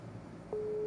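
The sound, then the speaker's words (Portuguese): A steady telephone busy tone switches on partway through and holds as a single clear pitch over a low background hum, with no one speaking. “Opa. Ocupado.”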